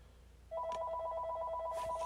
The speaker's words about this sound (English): Hold on, y'all. I just answered the phone. Why am I getting a call from scammers? Can y'all please leave me alone?